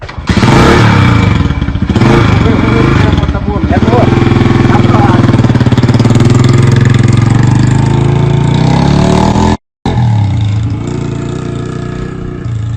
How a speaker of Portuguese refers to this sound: Agora eu vou batizar a moto, né? Batiza. Vou dar uma volta. Bora acelerar.